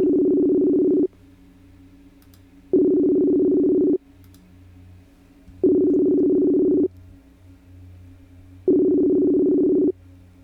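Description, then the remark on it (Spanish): A telephone ringback tone sounds four times, each steady mid-pitched buzz lasting about a second with short pauses of quiet line hiss between them, and no one speaks. “Ahí le estamos ya marcando, como podremos escuchar.”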